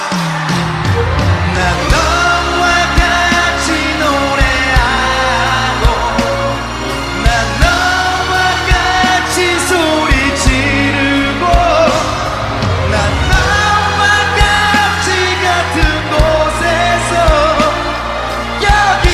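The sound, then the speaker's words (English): Loud live concert music with a pounding low beat plays throughout, while a crowd cheers, whoops and yells underneath it. “Since this is a recording of a concert, you'll hear cheering of the crowd in the background.”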